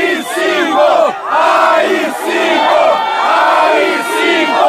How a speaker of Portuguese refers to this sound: Ele sobrevoou aquela manifestação bizonha pedindo fechamento do STF em um helicóptero do Exército ao lado do presidente, lembra?